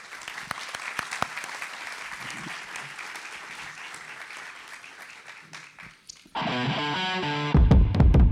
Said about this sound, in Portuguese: Uma salva de palmas para essa galera aqui, né?